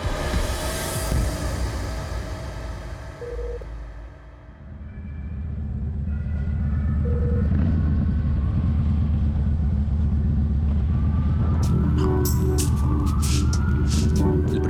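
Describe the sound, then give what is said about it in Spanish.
A motorcycle engine rumbles steadily through New York City traffic, a dense low drone that swells after a brief dip, with two short tonal beeps and scattered street noise over it. “Y como podéis ver, ejecutaré dicho ejercicio así, en moto.”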